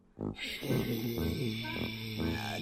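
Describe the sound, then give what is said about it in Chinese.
A person imitates a black cat snoring as it is about to fall asleep, a steady run of loud, low, rumbling breathy snores, several in a row, and no other talking. “对，就是类似像这样打呼的声音，”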